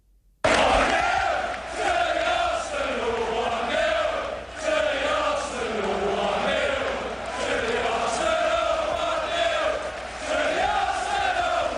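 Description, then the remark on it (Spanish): A large crowd of Arsenal football fans chants in unison inside the Emirates Stadium, a loud, sustained sung roar with rising and falling melodic phrases carried by thousands of voices. “Este tampoco es el himno, pero es lo que más suena allí en el Emirates.”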